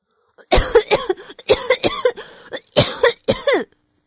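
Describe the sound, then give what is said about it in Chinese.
A person breaks into a fit of harsh, spluttering coughs from choking on water, three quick clusters of hacking bursts over about three seconds, loud and alone with no speech. “…啊，被水呛得直咳嗽。”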